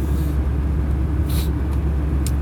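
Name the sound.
car interior rumble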